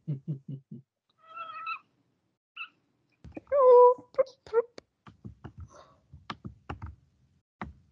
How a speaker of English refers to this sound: I can hear a cat. I've seen the cat. Where did he go?